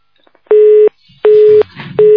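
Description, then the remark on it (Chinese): A steady phone busy tone sounds after a radio call-in phone call dropped, in repeated loud beeps, about three short bursts with brief gaps between them, at a mid pitch with no talking over it. “跳掉了电话。”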